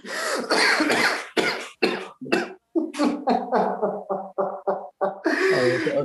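A man's loud smoker's cough: a long hacking fit of a dozen or so raspy bursts, some rapid and choppy, ending in a heavy, drawn-out wheezy hack.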